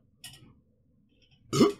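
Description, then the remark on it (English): A throaty burp erupts near the end, loud and brief, after a fainter short breathy noise and a moment of quiet. No one speaks. “I have this fucking reflex whenever I burp or cough or do anything, you know, like that.”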